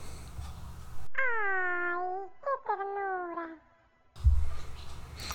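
A cat meows in two drawn-out, wavering calls, fairly loud, with a short pause between them and background noise before and after.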